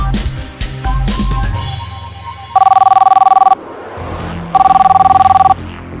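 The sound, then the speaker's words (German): A telephone rings twice in a classic electronic trill, each burst lasting about a second with a pause between, loud, over a soft background of music; it is ringing for the tenth time in the last quarter hour. “Das Telefon läutet.”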